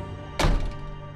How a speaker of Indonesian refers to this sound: Ku ambil handukku, kemudian aku membuka pintu.